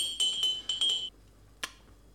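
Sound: glass jar clinking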